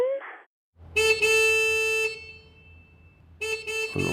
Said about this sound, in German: wo ist die andere Hupe?